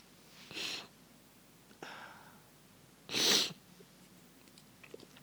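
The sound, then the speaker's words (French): Someone sniffles while crying, with three sharp nasal sniffs spaced a second or so apart, the last one loudest, against a quiet background, with no talking. “voilà je suis en train de pleurer.”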